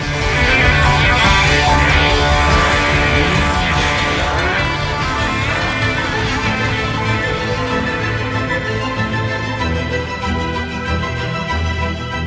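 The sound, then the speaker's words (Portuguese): A loud, full-band rock song about the love of cars, sung by the band's drummer, plays continuously, with dense guitars and a steady driving beat filling the whole stretch. “O fato relacionado à música que fala sobre a paixão por carros é tão inusitado quanto o uso que o veículo passou a ter nos últimos meses.”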